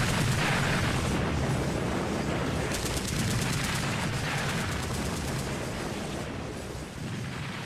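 Loud, dense battle gunfire as a battle breaks out in an attack on an enemy stronghold: rapid bursts of automatic fire blend into a continuous roar of shots and booming blasts that never lets up. No voices can be heard.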